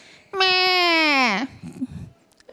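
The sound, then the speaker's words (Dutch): A person mimics a crying baby with one loud, drawn-out wail lasting about a second that sags in pitch at the end, followed by a few soft, murmured sounds. “Dat is hoe kinderen dat uiten. Die gaan dan huilen.”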